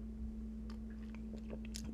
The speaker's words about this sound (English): ugh, another sip of my orange wine with cream. I don't like this.